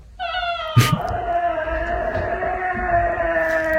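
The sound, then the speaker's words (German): A cat lets out one long, drawn-out meow that wavers as it holds for several seconds, loud, with a brief thump near the start and no talking. “Also, Katz jetzt festheben ja.”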